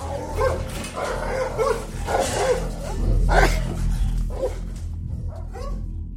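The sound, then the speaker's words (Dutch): A dog, eager to go straight after some men, barks repeatedly in short, excited bursts, with high whining and whimpering between the barks, all over a steady low background hum. “Nou ja, de hond die wilde gelijk die lui pakken.”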